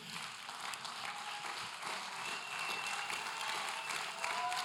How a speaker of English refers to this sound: Keep clapping.